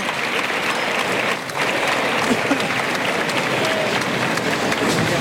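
Sustained applause from a large crowd in a bullring for the picador as he leaves the ring during a bullfight, dense and steady throughout, with scattered louder claps and a murmur of voices beneath, heard from within the stands.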